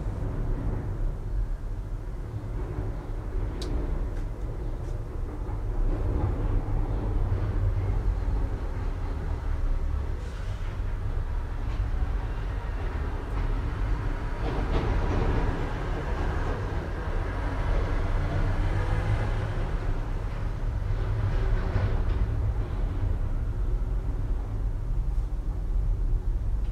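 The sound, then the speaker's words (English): A train or tram rumbles steadily past at a terminal in Linz, its low mechanical drone swelling in the middle and fading again, with occasional metallic clanks and hisses over a constant background roar. “It is an idyllic, calm quiet that is not silent, as it seems that no matter who waits how, there will always be a train or a tram and the barriers were always calmly open and closed to bring people into town or onto the countryside.”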